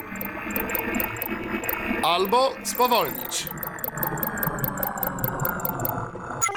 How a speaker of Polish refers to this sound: Abductor Ship, czyli statek yy, naszych wrogów, czyli tychże kosmitów, brzmi tak który oczywiście też możemy przyspieszyć